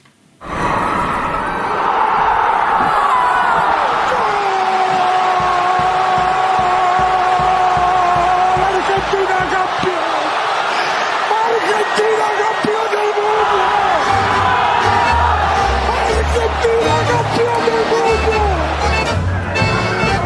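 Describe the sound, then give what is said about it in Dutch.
A dense, roaring crowd in Argentina celebrating the country's World Cup win fills the scene, with sustained loud cheering, whoops and chanting voices blending together, while horns blare and low drum-like thumps pulse in the background. “Maar eerst even die sfeer in Argentinië, wat er allemaal loskomt.”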